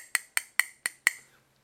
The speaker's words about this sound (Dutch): In een restaurant stopte hij gewoon. Zei die, eh, deed hij zo met een lepel op een glas zo.